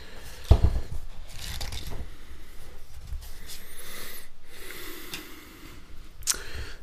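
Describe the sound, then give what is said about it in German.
Paper rustles and flaps as pages are leafed through a book on medicines, a series of soft swishes and crinkles with a sharper flick near the start and another toward the end. “Ansonsten habe ich natürlich sehr viele Arzneimittelbücher hier. So, da blättern wir mal.”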